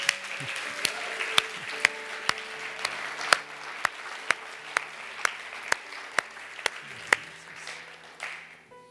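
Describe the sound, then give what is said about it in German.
Audience applause for a man fills the whole stretch, a dense wash of clapping punctuated by sharp, evenly spaced claps in a steady rhythm, before tapering off at the end. “So, gebt ihm mal einen Applaus.”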